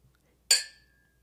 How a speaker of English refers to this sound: So at the end, we usually do a cheers. Okay. So perfect. I'll go, I'll count us down and then okay. we'll just all cheers. Okay.